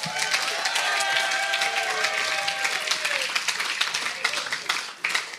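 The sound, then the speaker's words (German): A crowd applauds steadily for several seconds, dense clapping with a few cheers and whistles rising above it, tapering off at the end. “vorher will ich mal einen fetten Applaus von allen, die die Bibel feiern, für Philippa 3 versacht”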